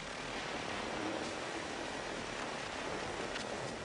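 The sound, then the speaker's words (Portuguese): Amplified recording of human brain electrochemical impulses, heard as a steady, dense hiss of static with faint crackles and occasional brief flickers, continuous and fairly loud throughout, with no voices. “Quando gravados e ampliados, esses impulsos soam assim.”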